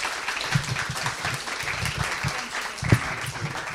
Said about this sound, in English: But yeah, can we put our hands together one more time